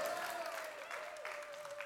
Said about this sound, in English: And like I told you before, I've been married for 24 years uh, this October. You can clap one more time if you want to.